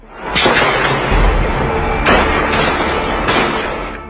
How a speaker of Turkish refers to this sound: Ancak olağanüstü hal uygulamasına sayılı saatler kala Bakü'de patlama sesleri duyuldu.